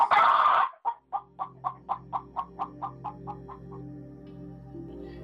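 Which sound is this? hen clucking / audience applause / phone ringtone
hen clucking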